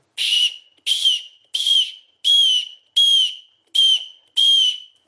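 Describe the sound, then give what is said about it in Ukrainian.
Seven short, high-pitched whistled squeaks in an even rhythm, each a sharp piping chirp that slides slightly downward, loud with brief silences between: a hunting lure call imitating a mouse squeak, used by a hunter hiding with a rifle to draw in a fox. “По суті, справи це є імітація миші. Миш пищить, заховається обжиту з рушницею і пищить миш, лисиця чує, біжить, на неї поживитися біжить.”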